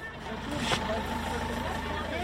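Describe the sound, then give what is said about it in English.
Two small buses rumble steadily as they pull out into the street between a school and an olive grove, their low engine drone continuous, with faint voices murmuring in the background. “Two small buses pull out in the street between the school and the olive grove.”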